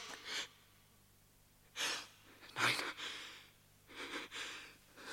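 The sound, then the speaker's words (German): Heavy, raspy snoring breaths of a sleeping man drawn in and pushed out, about five or six irregular breaths over several seconds, with a single short spoken word among them. “Aber es ist ein Mensch. Er atmet.”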